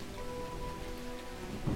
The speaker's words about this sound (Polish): Na początku poprzedniego odcinka, gdy wprowadzałem Was w temat całej sprawy, wspominałem o burzy. Teraz przyszedł czas na powrót piorunów.